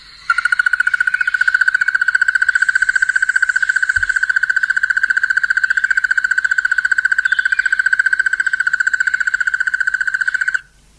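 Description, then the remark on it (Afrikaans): A crested barbet's call: one loud, rapid, unbroken trill that runs steadily for about ten seconds, with no other voices. “Kom ons luister net gou hoe klink hierdie houtkapper wat eintlik 'n tinker is.”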